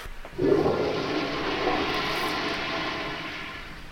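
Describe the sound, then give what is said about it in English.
A toilet flushes: a sudden gush of water at about half a second, then a steady rushing, swirling drain that continues at a fairly even level to the end, with no one speaking. “That's toilet of the week.”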